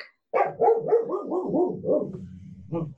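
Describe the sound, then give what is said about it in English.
A dog barks in a quick, continuous run of yaps that drop slightly in pitch, followed by a short pause and one final bark, fairly loud. “You hear a dog.”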